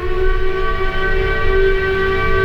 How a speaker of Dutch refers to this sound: Om half zeven ochtends dacht ik het geluid van een stoomfluit te horen. Ik durfde dit niet met zekerheid te zeggen, maar ik wist wel dat de arbeiders van het walvisstation rond die tijd gewekt zouden worden. Het geluid blijkt geen inbeelding.